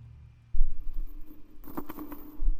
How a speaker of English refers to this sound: It was a small sound. After being here alone, and in silence for 45 minutes. A small sound was deafening. Something had moved. It was the sound of something being pulled across the floor. Not something big, though.